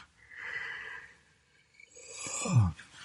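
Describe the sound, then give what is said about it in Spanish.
A long, breathy yawn: a drawn-in airy inhale, a brief pause, then a voiced exhale that sweeps downward in pitch into a low groan before trailing off. No speech. “Seguimos bostezando porque estamos ya a punto de dormirnos.”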